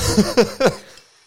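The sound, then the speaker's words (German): Three quick, sharp sneezes in a row, each a short noisy burst with a voiced edge, loud at first and then fading into quiet. “Hey, ja, Gesundheit.”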